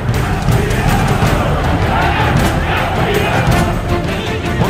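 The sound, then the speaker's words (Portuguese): A large crowd of Portuguesa football fans chants and roars in unison that the team is champion, at a 2011 Brazilian Série B match, a dense, loud wall of voices filling the stadium without letting up for the whole stretch. “sua torcida gritando que o time é campeão.”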